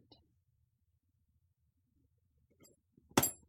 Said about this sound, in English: Oh, forgot to take my bell out. Did you just try to tap your box? yeah. You psycho. Double ding.